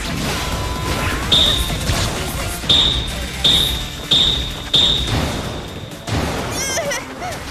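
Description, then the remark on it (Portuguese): A toy hammer strikes five times in an uneven rhythm in a dubbed scene from Jujutsu Kaisen, each hit a sharp thwack with a high, brief squeak, loud over a busy background with some voices underneath. “Um martelo de brinquedo!”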